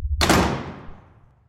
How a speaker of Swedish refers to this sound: Jag kastade mig mot dörren, öppnade den och slog igen den bakom mig.